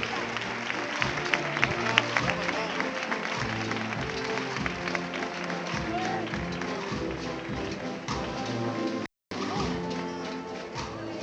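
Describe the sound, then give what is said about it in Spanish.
The public applauds a paso de palio (procession float with lit candles and flowers) as it holds its step, over layered band music with low sustained notes, the clapping dense and continuous for the whole stretch, cut off by a brief silent gap near the end. “Ahora sobre los pies, aguanta el paso de palio y de ahí los aplausos del público.”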